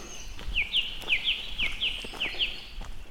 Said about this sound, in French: Et là, on passe dans ces petits sous-bois. Ah, je retrouve mon chemin là. Personne devant, personne derrière, juste les oiseaux.